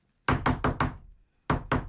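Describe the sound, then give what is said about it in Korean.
Rapid knocking on the side of a moving bus as a woman carrying a sack of rice runs after it: a quick burst of four loud, hollow knocks, a short pause, then two more, with no talking. “버스를 두드리는 소리에 창밖을 내다보니 웬 여자가 쌀포대를 짊어지고 달리는 버스를 따라오며 외치고 있었습니다.”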